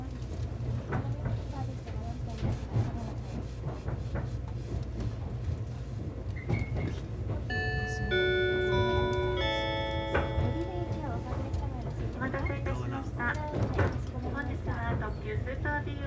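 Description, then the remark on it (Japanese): A limited express train bound for Tokyo departs Izu-Kogen Station and rumbles steadily along the rails with rhythmic clicking from the wheels and a brief rising electric whine midway, heard from inside the car with faint voices in the background. “まもなく発車時刻でございますご乗車のままでお待ちくださいありがとうございますさあ発車しました”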